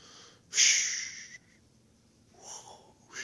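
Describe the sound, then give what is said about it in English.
A person imitates ocean waves with a breathy, hissing whoosh: a loud rush lasting under a second, then a softer, gentler second swell after a pause. “That's not the sound the waves make.”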